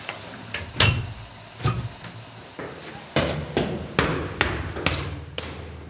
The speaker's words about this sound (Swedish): Jag kan bara dra igen dörren ordentligt.